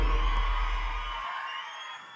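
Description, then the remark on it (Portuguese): A large crowd at a packed dance party shouts and cheers together in a loud, sustained roar of whoops and yells, with heavy bass booming beneath for the first half before dropping away. “Quem tá feliz, levanta a mão e dá um grito nessa porra aí.”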